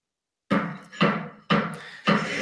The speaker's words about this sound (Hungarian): Hát jelenleg ugye itt vagyok egy nagy építkezésben, szerintem kiválóan lehet hallani, hogy nem lehet hallani talán, vagy valamennyit talán lehet hallani abból, amit én mondok.